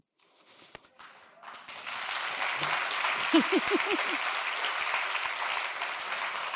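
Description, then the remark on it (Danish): An audience applauds an author reading from her book about shame: applause swells up within the first two seconds and continues as a steady, dense clatter of many hands, with a few brief whoops or cheers rising above it partway through. “og se, det er jo dejligt at blive klappet af sin skam, ikke?”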